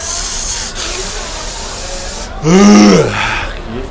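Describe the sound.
A voice imitates a deodorant-style aerosol nasal spray being sprayed into a runny nose: a long, steady breathy hiss for about two seconds, then a short, louder voiced sound with a falling pitch.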